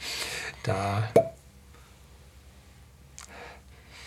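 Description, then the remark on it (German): A leather-covered cork pulls free of a whisky bottle with a single hollow pop, followed by quiet breathing and a faint sniff. “Äh, der Korken oben, der hat einen, einen Lederbezug, Elefantenleder.”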